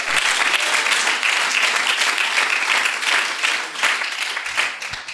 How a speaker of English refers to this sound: Is there anybody that can clap their hands and testify to that? That what Jesus has is greater.